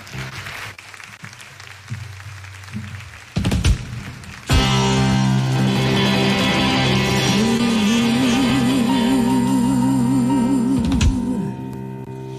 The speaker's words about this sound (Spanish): Cuando queráis, fuerte aplauso